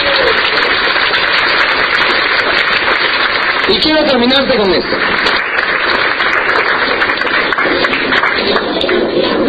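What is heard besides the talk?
audience applause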